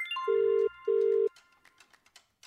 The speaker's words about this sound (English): So let's just jump right in and dial a number.